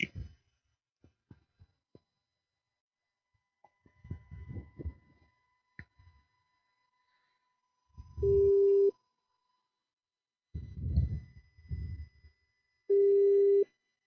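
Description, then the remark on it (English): Ringback on an outgoing phone call to a Bangkok escort service: two steady, mid-pitched tone bursts spaced a few seconds apart, preceded by scattered clicks and low muffled thumps from the line. “Uh, Bangkok escorts. You could call them.”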